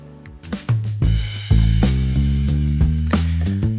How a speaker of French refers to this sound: Et si jamais vous êtes plus d'humeur, Guillaume a écouté un groovy acid jazz, cela donnera ça.